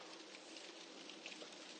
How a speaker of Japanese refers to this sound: いや、なんか、天気予報通り、朝が、朝のうちは急な雨に注意でしょうみたいなこと言ってたら、降ってきちゃいましたね。